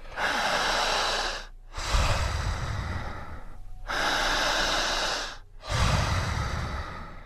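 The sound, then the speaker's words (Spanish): Two slow cycles of deep, loud breathing as a breathing exercise: a long hissing inhale, then a long rushing exhale with a heavier, lower rasp, each lasting about two seconds. No talking. “Vamos a respirar en casa, en Guatemala, en Honduras”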